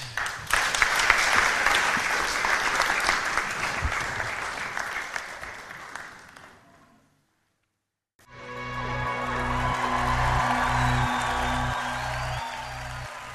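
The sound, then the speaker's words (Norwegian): An audience applauds in a dense, steady wash of clapping for several seconds, fading to a brief silence before a second round of clapping resumes over a low, rhythmic hum. “Ja, ble, ja, klapp litt, da.”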